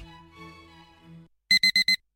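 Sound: alarm clock ringing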